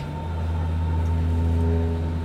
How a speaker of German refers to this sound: Wir sind am Anhalter Bahnhof in Berlin, eine unterirdische S-Bahn-Station.